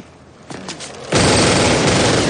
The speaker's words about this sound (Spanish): James abre fuego contra Fraun, que se escuda tras un coche aparcado para huir de los disparos.